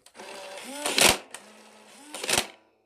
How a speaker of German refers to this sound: Ähm, und ja, mm, hat auch ein 30er Magazin. Und äh, wenn man oben in eine Lücke einen Pfeil reinsteckt, dann macht so ein Geräusch nur ein Klack. Warte, ich kann es mal demonstrieren.